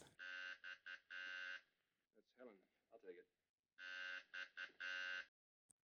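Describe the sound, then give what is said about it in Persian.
A harsh electric apartment doorbell buzzer sounds in several short and long bursts, pauses while a voice speaks briefly, then buzzes again in a similar pattern of stuttering bursts. “در این هنگام است که زنگ واحدشان به صدا در می آید.”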